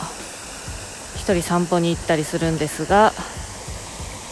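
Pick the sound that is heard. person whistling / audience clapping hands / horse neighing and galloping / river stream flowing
river stream flowing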